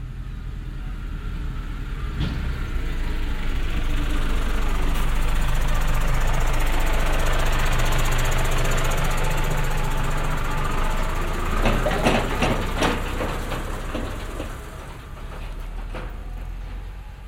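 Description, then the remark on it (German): Loud two-stroke engines drone steadily for the whole stretch among vineyards and river meanders on dirt roads, a buzzing, rattly motor sound that swells and eases slightly as if machines pass by, with no talking over it. “Zwischen den Weingärten und Mäandern lauten Zweitaktmotoren und erdigen Straßen.”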